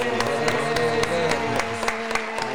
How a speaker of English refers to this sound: I want everybody to give a nice warm round of applause for our guests